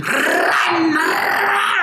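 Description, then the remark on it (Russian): A voice imitates a Mustang engine revving in neutral as the pedal is pressed: a sustained, loud, gravelly growl lasting about two seconds, with a rough buzzing tone that swells and holds steady. “Либо, либо ты такой сел в мустанг, такой вот на нейтралку поставил, mm. как педальку допанул, такой”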